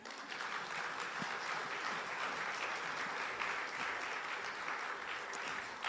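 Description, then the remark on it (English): Steady applause from an audience welcoming a speaker, a dense wash of clapping that holds at an even level for several seconds without a break or any voices. “So I'm going to introduce him to you and let's give him a warm welcome,”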